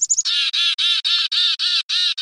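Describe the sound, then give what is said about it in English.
A black-capped chickadee's distress call: a few quick high notes, then a run of about eight harsh, buzzy squawks repeated in an even, rapid rhythm, loud and with no talking. “How about this black capped chickadee?”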